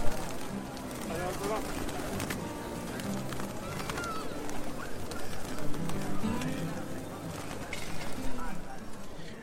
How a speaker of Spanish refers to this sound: Hay muchas palomas, muchas.